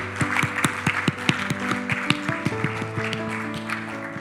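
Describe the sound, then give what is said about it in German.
An audience at a church service applauds two people steadily for about four seconds, a dense patter of many overlapping claps, with sustained keyboard-like chords ringing underneath and no one speaking. “Und einen ganz dicken Applaus an euch beide.”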